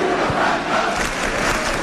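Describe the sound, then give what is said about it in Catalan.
A dense crowd in the square cheers and shouts steadily at 3 in the afternoon, celebrating the castellers of Vilafranca, the greens: a loud, sustained roar of many voices with no pauses, filling the whole stretch with broad, bright noise of celebration. “I a les 3 de la tarda ho continua celebrant de ple la plaça i els verds.”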